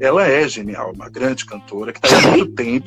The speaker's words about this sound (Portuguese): Desculpa, espirrei.